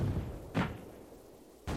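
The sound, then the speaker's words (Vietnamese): Two heavy, booming blasts like artillery or war explosions, from a war reaching the village of Hoa Mơ, spaced about a second apart, each a broad burst of noise over a low rumbling background. “Đó là trận pháo hoa giữa đất nước đen ở phía tây xa xôi và đất nước đỏ ở phía bắc.”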